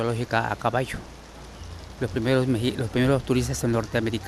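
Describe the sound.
A steady, soft hiss of rain falling on the ruins at Palenque, Mexico, runs continuously in the background while a man speaks over it, the patter most noticeable during a brief pause in his talking.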